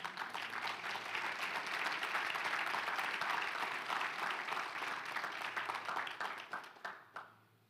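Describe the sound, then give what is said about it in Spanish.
An audience bursts into sustained applause given to God, a dense, steady wash of many hands clapping that holds strong for several seconds, then thins into scattered final claps and fades out. “Le damos un aplauso a Dios por eso.”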